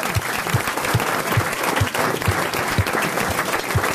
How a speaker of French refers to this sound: Vous pouvez applaudir Marc-Antoine Lebray que vous retrouverez dans RTL.